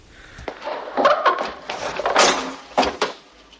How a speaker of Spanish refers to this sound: Pasan al salón y la viuda les encierra dentro. ¿Pero qué hace? Ya te lo he dicho, está loca. La mujer echa el pestillo.